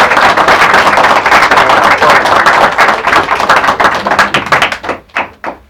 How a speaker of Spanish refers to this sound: Muchas gracias para él, buena energía también. Les démosle un aplauso al hermano